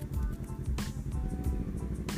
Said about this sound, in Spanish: que no es nada más que un motorista aquí a escape libre.